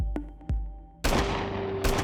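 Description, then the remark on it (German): Four sharp gunshots fired from a moving small car outside a shisha bar in Plochingen at about 5:20 in the morning crack out at uneven intervals, the first two softer, the last two louder, each trailing off into a rumbling echo. “Vier Schüsse werden aus dem fahrenden Auto abgegeben.”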